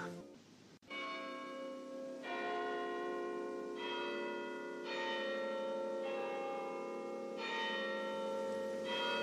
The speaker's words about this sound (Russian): Издали ветер доносил печальный перезвон часов. Пробило два